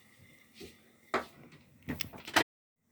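A door in a house is pushed shut, with a soft scrape followed by a cluster of sharp knocks and a rattling thump as it latches, then sudden quiet.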